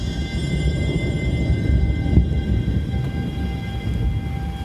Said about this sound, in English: A train rumbles past underneath us.